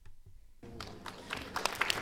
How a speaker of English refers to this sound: we are recording in front of a live studio audience. Audience, give us a round of applause.